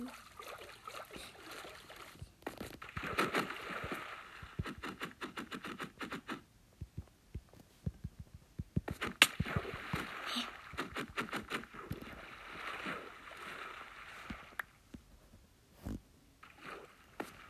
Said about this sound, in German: Hab ich noch irgend so ein Boot? Ja, hier. kommt ein Boot. Geht es einfach schnell auf dem Wasser.